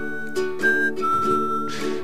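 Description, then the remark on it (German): A melody is whistled in clear, sustained notes that glide between pitches, set against a steady, full musical accompaniment. No one speaks, and the tune stays bright and fairly loud. “Ähm, er konnte gut pfeifen, er konnte gut singen und er verzauberte die Herzen vieler Nachkriegsfreunde.”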